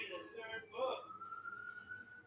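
A police siren wails outside, muffled and fairly distant, its pitch shifting early on and then settling into a long steady tone that holds to the end.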